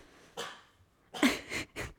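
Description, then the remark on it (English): A dog named Teddy barks in short, yappy bursts: one softer bark, a brief pause, then three quick barks in a row, moderately loud, with no one talking. “That's told, Teddy in the background. I told you it's he's okay. going to start barking.”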